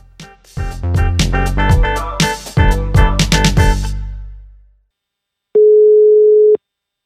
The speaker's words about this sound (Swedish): Vi ringer!